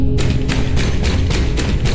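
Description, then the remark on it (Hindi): A steady series of about seven knocks on a house door, evenly spaced and firm, over a constant low rumble, with no voices. “घर के दरवाजे पर एक दस्तक हुई”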